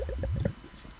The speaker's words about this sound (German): Das allseits beliebte Geräusch. Gluck, gluck, gluck, gluck. Gluck, gluck, gluck.